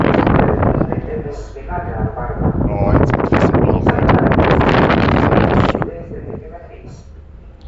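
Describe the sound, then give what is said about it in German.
Strong wind buffets the microphone in loud, rumbling gusts on a ship's deck, roaring steadily for several seconds before easing slightly, while a man speaks briefly over it. “Also ich befinde mich auf einem Schiff, das hast du dir schon gedacht.”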